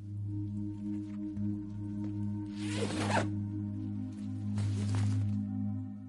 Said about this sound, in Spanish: Se gira y mira la bolsa. La pone en el suelo. Busca la cremallera y la abre.